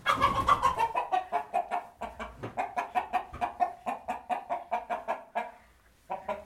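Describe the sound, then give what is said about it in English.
A turkey and other poultry cluck in a loud, rapid run of short calls, one after another in a steady rhythm, with a brief pause near the end before the clucking resumes. “Mr. Turkey.”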